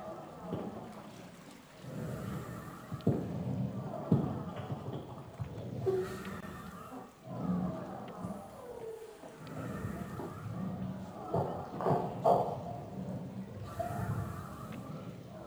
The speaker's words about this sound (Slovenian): Sedaj slišimo samo zvoke dihanja in pretakanja vode po teh tulcih.